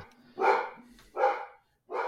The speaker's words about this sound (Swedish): Och nu är det lite live-skällning på hunden ja, Lemmy. Han är med i nästan alla poddar känns det som snart.